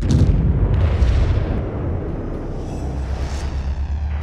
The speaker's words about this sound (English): You should experience lots of explosions with no body parts. Parents should be ready to cover their ears.